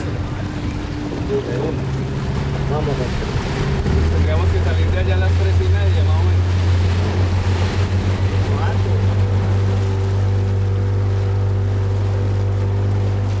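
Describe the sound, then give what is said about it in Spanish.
A motorboat's engine drones steadily as it cruises along the Amazon River on the border between Peru and Colombia, its low hum deepening a few seconds in, with faint indistinct voices and water noise underneath. “Hasta ahora hemos estado navegando el río alrededor de una hora y media”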